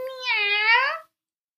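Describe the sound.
A single drawn-out cat meow, clear, lasting about a second with a slight downward bend before trailing off into silence. No one speaks.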